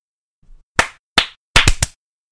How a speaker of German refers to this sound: Musst du jetzt nicht auch klatschen? Soll ich nochmal klatschen, damit du synchronisieren kannst? Ja, bitte.